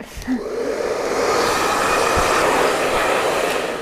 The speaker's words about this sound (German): Doch, ich föhne die immer